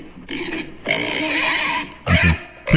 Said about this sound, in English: should be the sound of hogs. Exactly. When I hear that sound, I can go ahead and have something to munch upon.